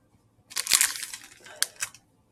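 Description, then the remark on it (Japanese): Wrapping paper crinkles and rustles for about a second and a half, a bright, papery crackle with a few sharper snaps near the end. No one speaks over it. “あこの包装紙がすごく綺麗で、ちょっと待ってくださいね。”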